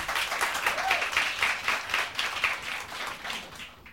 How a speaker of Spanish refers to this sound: Eh, si van a aplaudir, aplaudan bien.